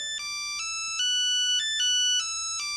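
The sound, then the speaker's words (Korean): A telephone rings with a bright electronic melody of stepped, steady tones changing pitch every half second or so, playing alone with no voices. “울리는 전화벨.”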